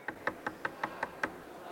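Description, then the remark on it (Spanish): Seven quick, evenly spaced knocks on a real door by a sound engineer who did not know recording was underway, captured in a song before the guitar solo, in a steady rhythm, fairly quiet, with no voices around them. “Uno de los ingenieros de sonido no sabía que estaban grabando y tocó la puerta y, y, eso, es, y ahí y Eso se quedó.”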